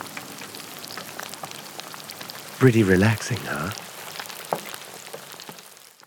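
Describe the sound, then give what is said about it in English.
A steady, dense crackle and sizzle of chicken deep frying in hot oil runs throughout, even, with a man briefly speaking over it partway through; from a KFC advertisement. “Enjoy the gentle sound of deep frying chicken.”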